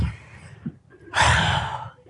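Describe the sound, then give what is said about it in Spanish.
A person demonstrates breathing while walking with raised arms, taking a deep, audible breath in, starting soft and swelling into a strong, airy inhale, lasting about a second. “Entonces procura caminar un poquito más rápido y levantando los brazos, respirando, respirando”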